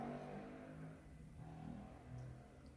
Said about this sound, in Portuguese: Ó a moto, ó a moto, ó a moto, ó a moto.